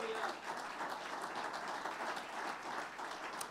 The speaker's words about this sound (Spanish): Den un aplauso de alabanza al Señor.